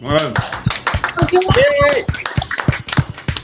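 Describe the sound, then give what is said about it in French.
A short burst of applause from a group, the team of the radio Français dans le monde, rapid overlapping claps forming a steady patter, with voices calling out and cheering over it. “Un petit coup d'applaudissement pour tout le monde.”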